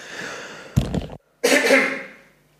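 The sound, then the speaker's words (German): Someone clears their throat: a short, rough guttural rasp, a brief pause, then a longer breathy clearing that trails off. No talking. “So, einmal räuspern.”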